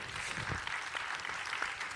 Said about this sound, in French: Merci, euh, merci à tous les quatre, on vous applaudit pour euh, vos échanges.